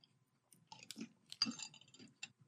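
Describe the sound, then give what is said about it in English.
Crisp crunching of Crunch Berries breakfast cereal being chewed, with repeated irregular bites and crackles over about two seconds, no talking. “When you bite into these crunch berries after they have sat a while”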